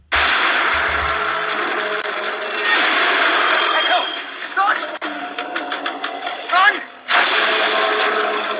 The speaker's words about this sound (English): There's the vague sound of the tick, tick, tick.